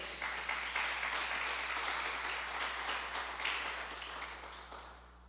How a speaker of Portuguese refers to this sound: Dá um aplauso ao Senhor aí, vai.